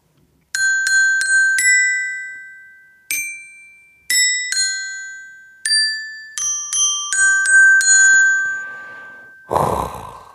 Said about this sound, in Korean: 어우, 요, 요, 요, 정박에 딱딱 들어가야 되는데, 어, 정박이 아니라 좀 레이백을 하는 느낌이죠? 예. 흑인의 소울이 조금 들어가 있는 아주 청량한 실로폰 연주였습니다.